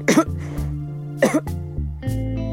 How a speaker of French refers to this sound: … toussa deux fois.